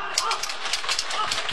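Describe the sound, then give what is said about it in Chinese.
A crowd claps steadily for a performer after a sung passage, a dense, crackling wash of many hands at an even, fairly loud level throughout, with no voices standing out. “谢谢啊，谢谢朋友们掌声。”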